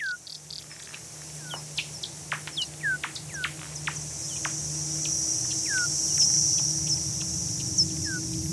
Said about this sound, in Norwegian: Insekt under vann og jaktende flaggermus er noen av lydene i vinderen sitt verk Ultrafield